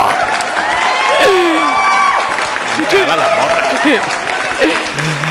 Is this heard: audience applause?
yes